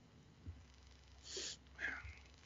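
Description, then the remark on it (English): A single sneeze with a brief breathy intake and a sharp burst, fairly quiet, with no talking around it. “Um, I really have to sneeze.”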